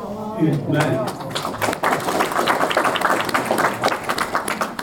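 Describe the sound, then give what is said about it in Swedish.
A group applauds steadily, a dense patter of many hands clapping at an even loudness for several seconds, with a brief voice heard at the very beginning, at a Synskadades riksförbund Skåne representative assembly meeting in Malmö as the meeting unanimously adopts a statement. “Och det var ett helt enigt möte som efter applåder antog uttalandet.”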